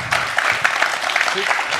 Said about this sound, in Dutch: Mag ik nog een eh, hartelijk applaus